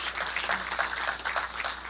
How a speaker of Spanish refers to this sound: Den un aplauso fuerte a nuestro Dios.